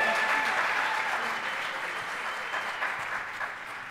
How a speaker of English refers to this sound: And let's give our students a round of applause.